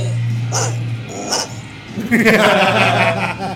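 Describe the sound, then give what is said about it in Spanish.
A dog named Tupac gives two short, sharp barks about a second apart, then breaks into a longer, drawn-out growling vocalization, all over a steady low hum. “yo creo que Tupac quiere decir algo. A ver, vamos a escuchar un poquito.”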